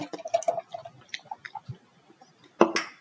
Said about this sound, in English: Well, let's just let everyone know that we are drinking this Witta beer out of a Weizen glass. So make sure to use your proper glassware.